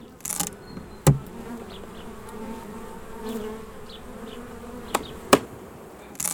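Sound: bees buzzing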